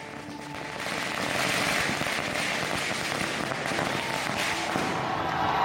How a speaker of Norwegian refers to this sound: Månelandingen ble feiret med fyrverkeri og jubel i gatene, og var en enorm sak i India.